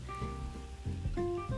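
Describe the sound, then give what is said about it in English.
Trees rustle steadily in the wind on a three-acre farm at sunrise, a continuous, airy hiss that swells slightly now and then, with faint tonal hums underneath and no one speaking. “And right now, you can hear the trees in the background.”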